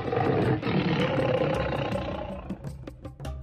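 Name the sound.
tiger roaring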